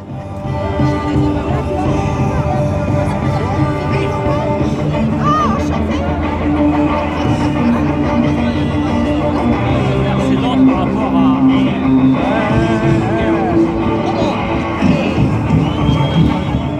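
A loud rock protest song blares from a CFDT union sound truck, steady and dense with sung vocals over a noisy crowd, continuing without a break for the whole stretch.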